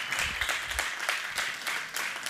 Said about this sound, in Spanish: Y pues esto, nuevamente le reiteramos con este aplauso que esta es tu casa